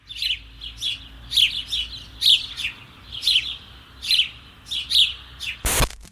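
Repeated bright chirps of a house sparrow come in short clusters about every half second to a second, lively, ending with a brief loud rustle or bump.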